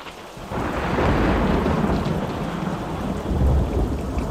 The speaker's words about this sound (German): Donnergrollen, zuckende Blitze am schwarzen Himmel. Elektrizität erfüllt die Atmosphäre.